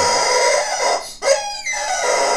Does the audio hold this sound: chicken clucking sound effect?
yes